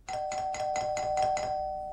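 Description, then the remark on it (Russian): A doorbell rings a second time at a door covered with oilcloth and felt, with a rapid run of about seven evenly spaced, bright buzzing pulses over a steady tone, then fades out. No voices accompany it. “В это время звонят еще раз.”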